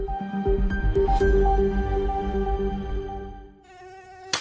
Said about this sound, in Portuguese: mosquito esquisito, sai fora do meu quintal.